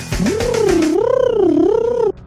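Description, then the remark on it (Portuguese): A voice imitates rapid guitar shredding as a buzzy, drill-like drone, its pitch swooping up and down in slow waves for about two seconds before stopping abruptly. “parece uma furadeira que tu vai oscilando a velocidade dela. É o mesmo barulho.”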